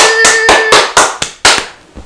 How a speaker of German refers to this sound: Oh Junge, das war laut. Okay, er klatscht auf sein Po, er macht auf seine Art und Weise.